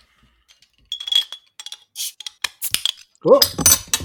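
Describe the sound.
A bottle of golden beer is opened with a short hiss and clatter, followed by several bright glassy clinks of glasses; a voice briefly speaks at the end.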